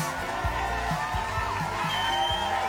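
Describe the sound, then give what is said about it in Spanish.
A dense, steady wash of crowd noise, applause and scattered cheers, loud and continuous throughout, with a few low thumps underneath, welcoming a guest on the radio program Casi Milenia. “A quien recibimos con un fuerte aplauso, señoras y señores.”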